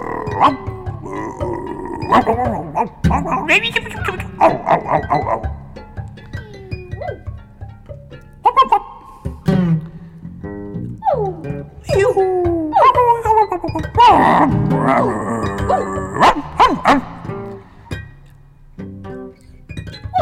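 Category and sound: animal, dog barking and yipping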